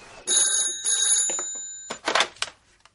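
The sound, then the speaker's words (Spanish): A telephone rings in two close bursts of bright, metallic trilling, fairly loud, followed by a few short clattering noises as the ringing stops. “Se sienta sobre una piedra y saca el móvil.”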